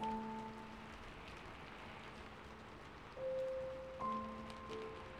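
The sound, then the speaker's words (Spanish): Steady rain under a cloudy sky patters in a dense, hissing wash, with scattered drops bouncing off a sheet-metal windowsill while soft sustained tones hum quietly underneath. “Podía oírse las gotas de lluvia rebotando en el alféizar de chapa.”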